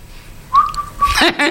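A person whistles a steady, clear note, breaks briefly, then whistles it again. A voice starts speaking right after the second whistle.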